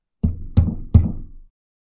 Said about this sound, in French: Ils ont vu de la lumière, au loin, c'était une maison. Ils se sont rapprochés et ont frappé à la porte.